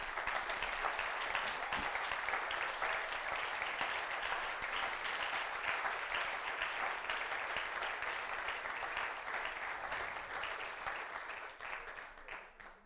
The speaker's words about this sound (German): Weil alle, die in diesem Haus arbeiten, sie geben ihr Bestes. Und lass uns mal allen, die hier arbeiten, einen Applaus geben.